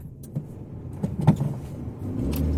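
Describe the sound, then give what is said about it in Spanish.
People climb into a car: a few scattered bumps and a door thud over a low vehicle rumble, with rustling movement and no talking. “Entra en el auto. Ahora.”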